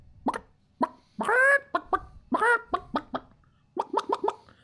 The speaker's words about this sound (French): Mais comme par centaines décuplés, des petits poulets qui semblent s'agiter à l'intérieur.